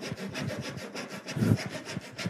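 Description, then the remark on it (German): Two physicists cut through wood with a hand saw in steady back-and-forth strokes, roughly nine rasping passes in quick rhythm, moderately loud, with one heavier stroke near the end. “Zwei Physiker sägen.”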